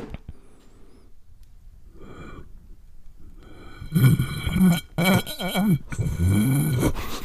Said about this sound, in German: Klingt so, als würdest du schnarchen. Ja. Ich habe geschlürft. Geschlürft, ja.